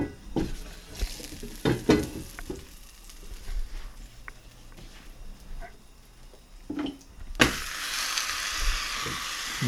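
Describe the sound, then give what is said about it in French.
A few knocks and scrapes of cookware, then a tortilla hits a hot frying pan, a weight is put on top, and a loud, steady sizzle suddenly starts and keeps crackling. “je mets le poids dessus. Hop. Ça va cuire.”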